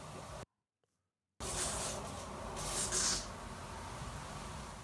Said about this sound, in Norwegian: Hører du det? Er det noen som pakker en julegave, eller? Ja, eller jeg tenkte, jeg tenkte i senga. Det er noen som teiper et eller annet, men jeg tenker jo sånn Er det noen som teiper et lik til gulvet der oppe?